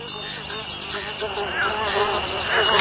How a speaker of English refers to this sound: you wondered what was making that sound. Ah, mosquitoes!